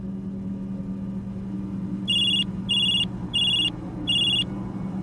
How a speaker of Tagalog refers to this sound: Hindi pa nakakalipas ang sampung minuto, nag-ring na bigla ang cellphone ko.